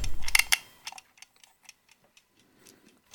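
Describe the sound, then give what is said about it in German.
A brief clattering rustle as a clock is set, then the clock ticks steadily and quietly, a regular string of sharp little clicks heard on their own with no voices. “Alles klar, sie tickt vor sich hin.”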